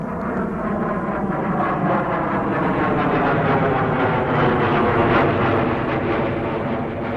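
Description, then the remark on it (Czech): An L-29 Delfín jet trainer aircraft's engine roars steadily and loudly for several seconds, a dense whining rumble that swells slightly toward the end as it passes by, with no voices. “Delfíni se později stali jednotnými cvičnými letouny zemí Varšavské smlouvy, kromě Polska.”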